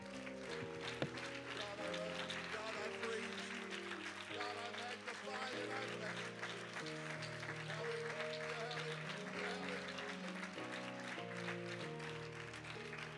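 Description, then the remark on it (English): An audience claps their hands to the Lord steadily throughout, a dense, continuous patter of many hands over sustained, shifting keyboard chords, staying loud and even for the whole stretch. “Could we clap our hands to the Lord one more time?”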